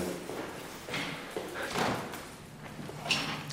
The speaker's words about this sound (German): Es öffnet sich die Tür in eine zweite Welt. Vom drinnen ins draußen vom großen Umbauten ins noch größere Freie.